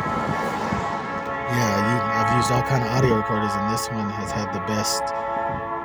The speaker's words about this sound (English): Sorry about the train, you guys. I'm outside in my car.